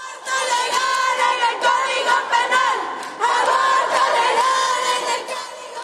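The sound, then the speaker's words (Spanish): A crowd of women inside an assembly chants loudly in unison while clapping, their voices merging into a steady, high-pitched roar that dips briefly midway and then surges back even stronger. “Otras aplaudieron y cantaron.”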